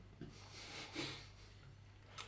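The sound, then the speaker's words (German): Someone imitates snoring: a long, raspy, breathy inhale that swells and fades, then a short sharp snort near the end, fairly quiet, with no talking. “Dann schneit er jetzt vielleicht ein bisschen lauter. Ja, ja, schnarchen.”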